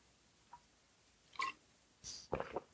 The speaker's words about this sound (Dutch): Ik neem even een slok water hoor, want ik merk dat ik een hele droge mond krijg